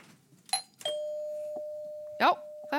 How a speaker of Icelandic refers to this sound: Þá er eh, komið að bjöllurspurningum og ég ætla að byrja á að fá að heyra í bjöllunni hjá ykkur